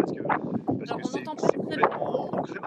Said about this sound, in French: entend assez mal avec euh, le vent. On va essayer de, résoudre ce souci.